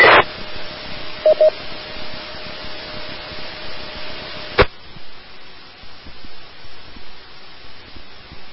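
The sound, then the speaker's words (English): Two amateur radio transmissions doubling on the same simplex frequency during a radio net: a hiss of static with a steady whining tone and a couple of short beeps, lasting several seconds before abruptly cutting to quieter background noise. “You just heard a double, so she may have been trying it again.”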